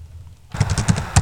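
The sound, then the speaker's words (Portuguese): After a brief silence, heavy computer keyboard typing starts: rapid, forceful key strikes with thumping bottom-outs, uneven in rhythm and fairly loud, with no voices. “É, você está digitando muito forte, o ouvinte vai ficar com um pouco de raiva de você por causa disso.”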